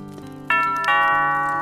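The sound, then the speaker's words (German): A doorbell chimes with two clear tones in quick succession as people arrive, a bright ding-dong whose second note rings out and lingers, fairly loud over a low background hum. “und klingeln.”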